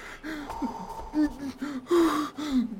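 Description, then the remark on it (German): A person takes several sharp, gasping breaths, each one strained and partly voiced, coming in a quick uneven series with no words spoken. “Und wir atmen zusammen.”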